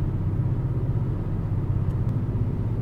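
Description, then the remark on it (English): Steady, loud low-pitched rumble of a car driving down a mountain on an Oregon freeway, with continuous road and engine noise and no talking. “I'm going down a mountain right now, so I don't think that's my knock sensor. That's just a uh, little Oregon freeway.”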